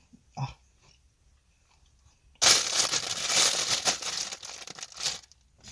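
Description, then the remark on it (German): Near silence, then abrupt, loud crinkly rustling as a hand roots around inside a plastic bag, continuing in uneven bursts for several seconds, with no voices. “Es war gerade ganz leise und dann kommst du im Touchscreen in diesen Tüte rein.”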